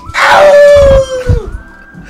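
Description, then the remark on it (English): A dog lets out a single loud, sustained howl that holds a steady pitch and then slides downward, fading out over about a second and a half with some rumble underneath. “You scared the dog on that one.”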